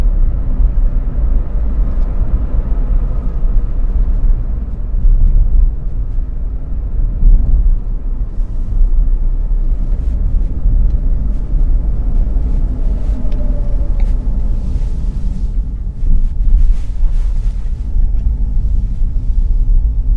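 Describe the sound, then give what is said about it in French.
Steady low rumble of an electric car's cabin while driving, a constant road and tire drone with faint high whines and occasional light clicks, no voices. “je vous laisse avec un petit peu, encore un petit peu d'écoute du silence, ou tout du moins de ce bruit particulier quand on est en voiture électrique.”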